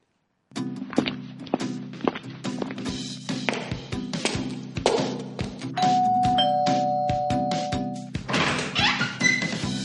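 Footsteps and soft thuds, then a doorbell chime rings out with a clear, sustained two-note tone lasting a couple of seconds, marking a visitor at Acústica EAFIT, followed by more shuffling and bumps.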